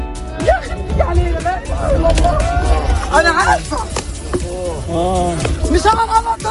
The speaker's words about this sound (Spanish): Este es el sonido, este es el sonido de la primera reacción de pánico entre los palestinos que estaban en una cola en Gaza para recibir ayuda humanitaria. El ejército de Israel ha bombardeado a los que estaban en esa cola esperando ayuda humanitaria